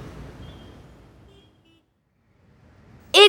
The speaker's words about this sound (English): Yes, maybe it could fly to avoid all this traffic.